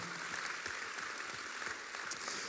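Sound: audience applause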